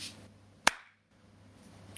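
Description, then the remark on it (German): A single sharp, loud clap demonstrating military-style applause rings out once, a crisp slap-like burst with a brief fading tail, standing alone over a faint low hum with no talking. “Und der militärische Applaus, den es für mich gab, Achtung,”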